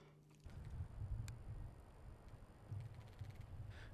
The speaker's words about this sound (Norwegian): Det blåser på Sankthanshaugen i kveld.